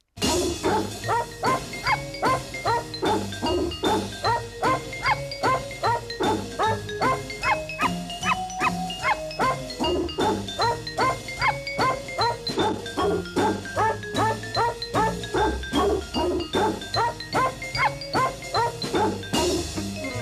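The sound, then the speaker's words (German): A piece of music built from dog barks, with many yips and woofs pitched into a bouncy melody over a steady beat, loud and continuous throughout. “In der nächsten Musik, da haben viele Hunde sehr viel zu tun. Nicht nur hören, sondern auch bellen.”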